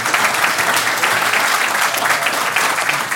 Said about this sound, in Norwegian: Applaus.